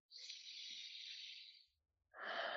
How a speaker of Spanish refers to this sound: Respiro.